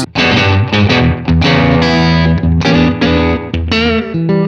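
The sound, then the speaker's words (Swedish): Overdriven electric guitar played through an amp, thick gritty chords struck in bursts with short gaps, loud and sustained, with a saturated, crunchy tone and no voices. “De blir det blir liksom lite för gainigt. Det låter lite för modernt.”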